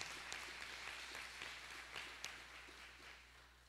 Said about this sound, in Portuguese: Dê um aplauso a Jesus.